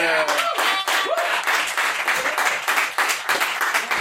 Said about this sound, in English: Wow, you guys stopped clapping immediately. That was... Note to all performers, you can just ask for it tonight. That was so easy.